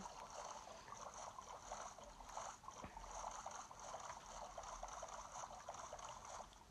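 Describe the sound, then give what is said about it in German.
A video game boat rowing through water, with a steady splashing and swishing that continues throughout, fairly quiet, with no talking over it. “Hier Boot nehmen und zack.”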